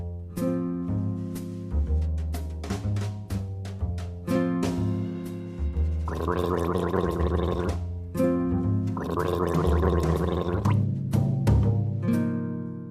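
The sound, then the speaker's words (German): A speech trainer does the water-glass exercise, gargling water with a steady voiced tone that glides between pitches, to train the throat R. The bubbling grows noisier and stronger in two longer stretches midway, with short breaks between sounds and no talking. “Anfangen tue ich immer mit der ganz berühmten Wasserglasübung, weil es tatsächlich so ist, das Nichtbeherrschen des Rachenrs ist eine Faulheit der Zungenwurzel.”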